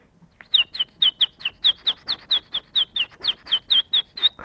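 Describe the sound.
A voice imitates a baby chick's peeping with a quick, steady run of about sixteen high, bright chirps, close and fairly loud, with no talking.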